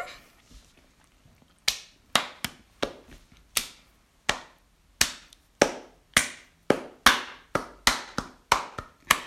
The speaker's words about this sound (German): Ja, das sollte ein Applaus dann werden, weißt du?